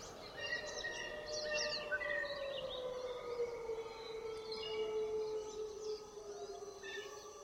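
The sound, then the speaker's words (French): Wolves howl in long, sustained, gliding tones that overlap in a steady chorus, the howls coming closer and closer, while small birds chirp and twitter in brief high bursts above them. No one speaks. “puis les hurlements des loups, de plus en plus proches.”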